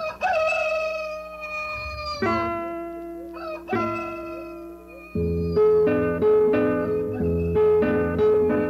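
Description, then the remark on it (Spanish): Roosters crow loudly in the morning in the countryside of Segovia, Spain, several long, strained calls following one another and overlapping, with a dense farmyard layer of sustained calls in the second half and no talking. “El sol alegre de los campos segovianos, los gallos cantando, el ganado mugiendo y los mozos trabajando.”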